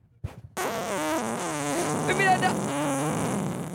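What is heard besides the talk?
long fart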